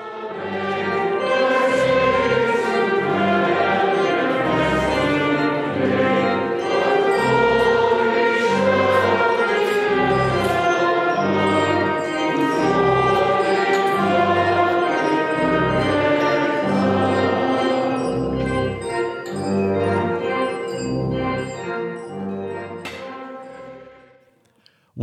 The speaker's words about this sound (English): What you're hearing is the hymn, O Wondrous Image, Vision Fair,